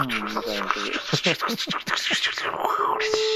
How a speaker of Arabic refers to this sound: صوت صوت الورق ذا ولا ايش؟ ايه ورق كوميك مانجا